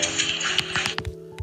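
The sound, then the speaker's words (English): A dog puts its paws up against a metal cage, making a quick run of irregular, rattling metallic taps and clanks over a faint hum, with no one talking. “that was my dog. That was my dog Kobe um, heading up against, uh, putting his paws up against the cage.”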